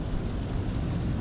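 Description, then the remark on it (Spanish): Steady road rumble from inside a car cruising on a highway in the rain, with a soft wet hiss layered over the low drone and no voices; the driver holds a microphone while driving. “Estoy en la carretera.”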